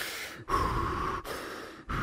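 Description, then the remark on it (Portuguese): A voice imitates heavy breathing up close, as of someone lying almost beside a person who has just woken: loud, rasping inhales and exhales in a steady rhythm, about three long breaths separated by brief pauses, with no talking. “E daí eu, eu escutei, tipo, bem perto, assim, uma respiração bem forte, assim, como se tivesse, tipo, quase deitado ao meu lado, assim, respirando mesmo.”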